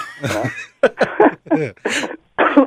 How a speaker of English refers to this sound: oh, excuse me. I'm kind of getting over a cold, so apologies if I'm coughing at all.